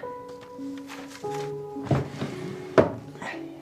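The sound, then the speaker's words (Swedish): A wooden dresser drawer, well sorted and full of photographs and postcards, is opened and shut, giving two dull thunks about a second apart, over soft murmuring voices in the background. “Den ligger i en välsorterad låda full med fotografier och vykort.”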